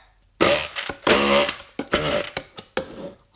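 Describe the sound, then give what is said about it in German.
A blender motor whirs loudly in a series of short, uneven bursts, starting and stopping repeatedly with brief pauses between pulses, and no voices. “Mann, ich hasse das mit diesem Ding, dass man das immer vorher so drücken und stampfen und umrühren muss, bevor das hier geht.”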